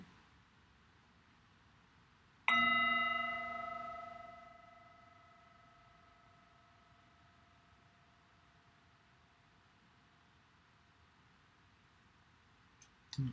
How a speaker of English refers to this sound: Breathing in and breathing out as we bring the practice to a close with the singing bowl.